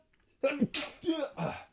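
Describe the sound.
A fairly loud sneeze heard as a quick run of four sharp, breathy bursts with voiced edges, following each other in under one and a half seconds.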